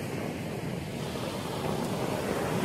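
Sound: ocean waves and wind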